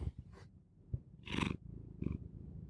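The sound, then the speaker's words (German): A cat gives a few short, throaty vocal bursts, the loudest in the middle, over a soft continuous low rumble like purring. No one speaks. “Ich habe hier übrigens eine Katze.”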